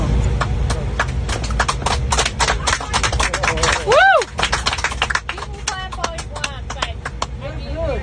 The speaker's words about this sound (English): The woman gets kicked off this American Airlines flight because she wouldn't wear a mask and got a very hearty round of applause.